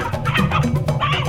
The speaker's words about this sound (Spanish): Mira, este es Pacho, el gallo mío.